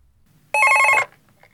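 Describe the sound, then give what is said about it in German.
A single loud burst of telephone bell ringing in a jingle, a rapid metallic trill lasting about half a second, then cutting off into near silence with faint low background noise. “Ja, wir haben Jingles gemacht.”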